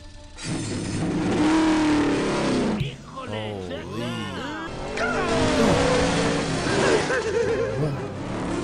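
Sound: car engine revving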